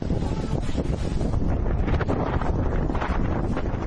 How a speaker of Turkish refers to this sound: Plajı birbirine kattı. Zaman zaman rüzgarın da etkili olduğu İzmir'in Dikili ilçesinde öğle saatlerinde deniz üzerinde hortum oluştu. Kısa sürede sahile ulaşan hortum tatilcilere korku dolu anlar yaşattı.